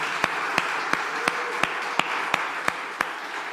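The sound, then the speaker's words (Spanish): An audience applauding for the Lord: a steady, dense wash of many hands clapping, with louder sharp claps cutting through in an even rhythm, roughly three per second. No talking. “¿Qué tal si le damos un aplauso al Señor?”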